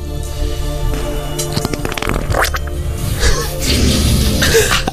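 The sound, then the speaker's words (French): Loud sputtering bursts of a wet fart sound, made by mouth as a voice imitation, repeating with a raspy, spluttering texture over a steady low hum. “Alors, avec quelle partie de son corps a-t-il pété Alors, ah, pas un, un, du cul avec un peu de liquide.”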